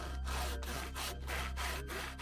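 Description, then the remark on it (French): A hand saw cuts a thin square out of the lower part of a wooden front door at night, in steady back-and-forth strokes, about six loud, raspy pulls in quick even rhythm, with no voices. “la personne découpe un mince carré sur la partie basse de leur porte d'entrée, s'y faufile, bien que ça fasse la largeur d'une chatière”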